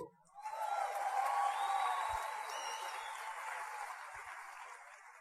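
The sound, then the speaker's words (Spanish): An audience breaks into steady applause for Andrés, a small boy, that rises quickly and holds for several seconds, a dense wash of clapping with a few faint whoops mixed in, then tapers slightly near the end. “Un aplauso para Andrés.”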